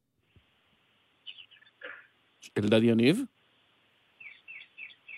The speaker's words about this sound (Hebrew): כן, כן. אנחנו שומעים בעיקר ציפורים. אה, אה, אתם מבינים... אה, ציפורים זה ממני.